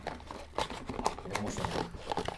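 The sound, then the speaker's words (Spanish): A cardboard box is torn open: irregular bursts of ripping and crinkling, moderately loud, with sharper tears spaced through the couple of seconds and no voices. “Escucha que me voy a cargar la caja. Igual tiene para abrir por otro lado más fácil.”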